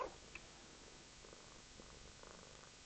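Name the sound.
cat purring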